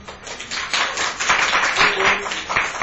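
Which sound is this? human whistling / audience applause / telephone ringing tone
audience applause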